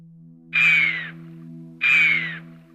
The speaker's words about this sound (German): Ihr Pfiff warnend, Ihre Gestalt elegant, Ihre Kletterei meisterhaft. Die Rede ist von der Gams, einem der Bergtiere schlechthin.